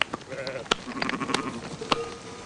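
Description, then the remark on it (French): Several sheep bleat in overlapping, wavering calls, with sharp clicks and rustling mixed in over about two and a half seconds of busy outdoor noise. “J'ai zéro autorité sur ces moutons.”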